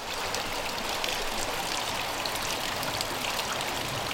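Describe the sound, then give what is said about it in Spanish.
The Santelerreca, a small stream in Vera, murmurs steadily, a continuous bright hiss of flowing water with fine bubbling texture and no pauses, holding an even level throughout with no voices. “Es el arrullo de Santelerreca, el riachuelo de Vera que desde tiempos inmemoriales ha sido testigo del devenir de una casa que, como muchos de nuestros anfitriones, tampoco necesita presentación.”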